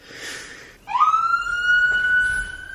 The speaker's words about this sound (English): And there goes wow. the ambulance.